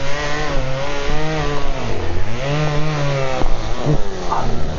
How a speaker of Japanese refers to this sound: 木を切ってらっしゃる音がしてますねチェーンソーで切ってらっしゃるんですね